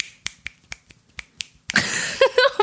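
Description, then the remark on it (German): Quick finger snapping imitating the speed of the record holder for fastest finger snapping: about seven sharp, crisp snaps in a fairly steady rhythm, followed by a louder, denser burst of noisy clatter toward the end. “So, konnte, so schnell konnte der schnippen.”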